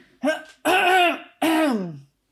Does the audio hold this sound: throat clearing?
yes